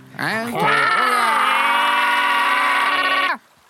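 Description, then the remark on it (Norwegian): Three voices join in a loud, sustained vocal imitation of an alarm, rising in pitch at the start and then holding a steady blaring tone for about three seconds before cutting off. “Ja, vi kan jo sende ut den, eh, den alarmen som har hver gang noen har gått på en smell her.”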